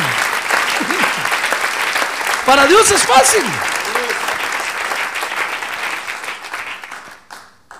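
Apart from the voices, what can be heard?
audience applause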